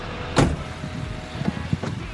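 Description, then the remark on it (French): The door of a grey car thumps shut over the steady low rumble of its idling engine as someone gets in at a train station, followed by a few soft knocks and shuffles of settling into the seat. “Je vois au loin arriver une voiture grise avec derrière le volant une espèce de rideau noir.”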